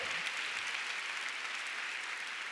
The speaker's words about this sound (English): Come on, let's give God a big clap. Oh, you want to clap? Let's give God a big hand. Hallelujah.